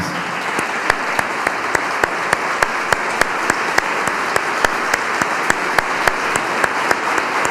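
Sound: audience clapping hands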